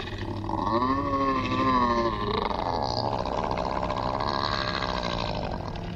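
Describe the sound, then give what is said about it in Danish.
A slimy, hairless, human-sized creature, shaking as it rises and begins shape-shifting, screams in pain: a loud, drawn-out scream with a harsh, roaring tone, rising and wavering in pitch before breaking into a rough, growling howl that sustains without pause. “Væsenet råber i smerte,”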